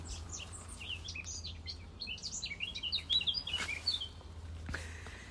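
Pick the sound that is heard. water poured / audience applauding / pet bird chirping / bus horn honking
pet bird chirping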